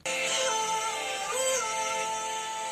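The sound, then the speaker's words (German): A pop song played in reverse, its smeared, swelling vocal tones and dense backing sliding oddly along at a steady, fairly loud level with no talking over it. “Das klingt total geil, wenn das rückwärts abgespielt”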